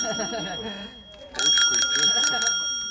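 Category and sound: vehicle, bicycle bell ringing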